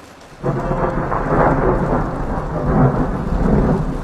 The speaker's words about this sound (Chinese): 这里的雨天必定伴随着大雷电，但雷声总是沉沉的，毫不干脆，一响起就是一长串，从西边翻滚到东边，像是一头老龙一边翻身子一边清嗓子